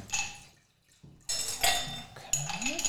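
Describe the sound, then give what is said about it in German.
Two ice cubes clink into a drinking glass in a few bright, sharp bursts with ringing tones, separated by brief pauses, fairly loud, with faint pouring or rattling between. “Möchtest du einen Eiswürfel? Ja, gerne. Ein oder zwei?”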